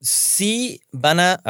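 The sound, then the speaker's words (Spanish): A loud, sharp sneeze, a hissing burst of breath that trails into a short voiced cry, is followed right away by someone speaking. “¡Salud!”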